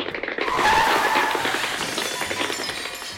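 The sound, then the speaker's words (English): A car swerves as someone crosses the street in Pflugerville, with a loud tire screech lasting about a second, then hits garbage cans in a rough, rattling clatter that gradually fades. No one speaks. “Apparently, when you cross the street, cars swerve and hit garbage cans.”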